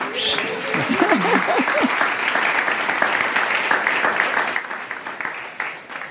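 Steady, dense applause from a crowd lasting several seconds, with a few brief voices and whoops rising over the clapping near the start before it carries on evenly.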